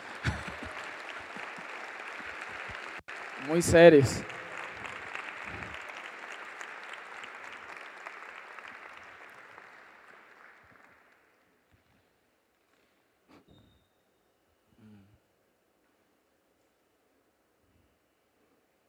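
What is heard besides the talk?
audience applauding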